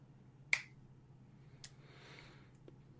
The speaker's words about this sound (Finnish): Käsikirjoittajat ja ohjaajat ovat miettineet päänsä puhki sopivia saatesanoja Tonille, ja pitkään olikin niin, että mies napsauttaa sormiaan kaikessa hiljaisuudessa virnekasvoilla.